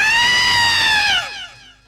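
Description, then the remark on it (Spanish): A woman's loud, high-pitched wailing scream at night, held steadily for over a second before its pitch sags and trails away. It is a single cry with no talking. “Andaba dando grandes gritos.”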